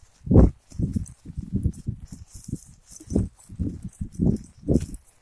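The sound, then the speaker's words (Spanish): Quick, uneven thudding footsteps of people running, fairly loud, with a faint rustle and hiss in the background and no voices. “¡Estamos corriendo!”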